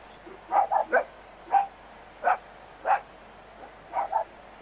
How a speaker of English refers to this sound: Special comments there from Keys' dog.